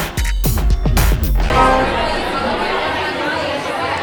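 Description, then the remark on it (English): A brief tonal, musical burst gives way to steady crowd chatter at lunchtime networking during the Bloggerconf conference at the Marker Hotel: many overlapping voices, a continuous murmur at moderate loudness with no single speaker standing out. “As you can hear, the excitement is incredible. It's just lunchtime uh, after a morning of great talks, more on the way in the afternoon, lots of networking going on.”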